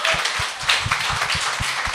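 Hands clap in a quick, steady rhythm, fairly loud, over a bright, hissy wash of noise. No one speaks.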